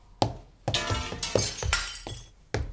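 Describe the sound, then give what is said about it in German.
A lamp crashes and shatters, a loud run of sharp glassy smashes, about five separate impacts over a few seconds, each leaving bright tinkling debris that quickly fades. No one speaks. “Pass auf die Lampe auf.”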